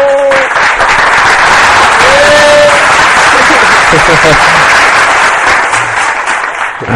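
A loud, sustained crowd applause sound effect, played at the end of a programme, fills the whole stretch: a dense rush of many hands clapping at once, with a few brief tonal whistles or cheers rising above it.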